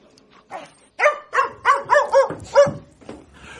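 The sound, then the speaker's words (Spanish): A dog barks in a quick series of about six or seven sharp barks, coming in a steady rhythm with short gaps between them, with no talking. “Los perros han prestado y prestan vastos servicios a la humanidad, pero los hombres no siempre han sido agradecidos con los perros.”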